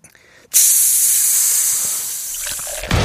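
Fizzy cider (soda) being poured, played on a radio show to serve a listener a cold cider: a sudden, loud, bright fizzing hiss that holds steady for over two seconds, then tails off into a brief splashy burst. No one speaks.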